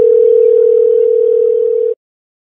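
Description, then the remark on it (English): A phone ringback tone as someone calls another phone: one steady, loud electronic hum that lasts about two seconds and then cuts off into silence, with no voices. “Oh, it's not off. It's ringing. It's ringing.”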